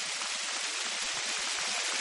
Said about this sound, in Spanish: De vuelta al escenario del anfiteatro, Orestes finaliza su melodía. Todos aplauden con sus carracas de madera.